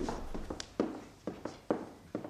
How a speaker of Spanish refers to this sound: Cuando la traigo al pensamiento después de tantos años, se me representan clarísimamente dos cosas de su grata persona. Sus ojos incomparables, y el taconeo de sus zapatos golpeando la tarima del pasillo.